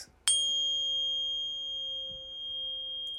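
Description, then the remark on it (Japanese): A pure, steady sine tone switches on abruptly with a slight click and holds at an even pitch and level, humming on its own with no voices. “あるいは音そのものが持っているパワーとしまして有名なところですと 528Hz”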